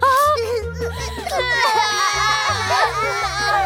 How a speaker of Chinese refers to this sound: 小鳄鱼们哭得更大声了。